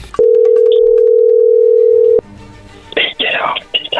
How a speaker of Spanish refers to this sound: ahí se está marcando, no hagas nada de ruido